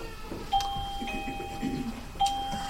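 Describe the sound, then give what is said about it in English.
A doorbell chimes twice, its clear ringing tones sustaining and overlapping over a low hum, with no one talking. “I think that's the bell.”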